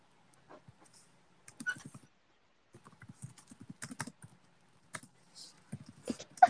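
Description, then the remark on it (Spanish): Typing on a computer keyboard comes in irregular bursts of quick, soft keystrokes separated by short pauses, fairly quiet, with no one speaking. “¿Estás tecleando? Sí, estás escribiendo algo”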